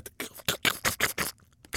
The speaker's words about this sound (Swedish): Därför sköt han inte, utan drog istället upp en sax och började klippa upp magen på den däckade vargen. Klipp, klipp, klipp